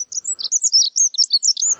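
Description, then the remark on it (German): A dunnock sings its winter song: a rapid, high-pitched warbling phrase, a continuous jumble of thin sweet notes lasting under two seconds, clear, with faint background hiss near the end. “Erstmal bleibt uns ab und an ein winterlicher Gesang der Heckenbraunelle”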